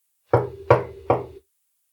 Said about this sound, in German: jetzt würde ich mal auf Holz klopfen. Jetzt hast du es beschrien. Okay, warte, hört man das?